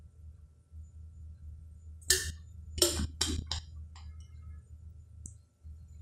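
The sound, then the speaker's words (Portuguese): Someone takes a drink of water during a 15-second pause, with a quick cluster of four or five wet swallowing and bottle-clicking sounds over a low steady hum, then quiet. No one speaks. “Saúde, se alguém que teve água, pausa para água, 15 segundos para água.”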